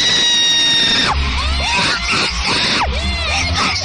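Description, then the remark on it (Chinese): Loud, shrill screaming like an excited fan, a long sustained shriek with wavering pitch and a few gasping breaks, piercing and relentless with no talking. “我的妈呀，这是边生孩子边喊啊！”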